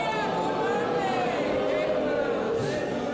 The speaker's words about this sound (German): Spätestens da sind alle richtig genervt und bringen es lautstark und tumultartig zum Ausdruck.